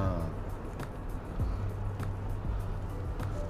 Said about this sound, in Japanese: ねそもそもこの音声がねいや今マイクのマイクから入る音っていうんですかねあのスマホで撮ってるんですけど多分エンジン音入ってるなこれ軽くな